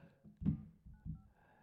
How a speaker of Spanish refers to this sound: Déjenme ver si, si está aquí. A ver, el teléfono para marcarle de vuelta.